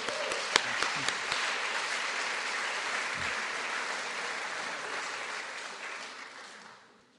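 A crowd applauds steadily with dense, crackling claps at an even loudness, a few sharper claps standing out early on, then the clapping thins and fades away at the end.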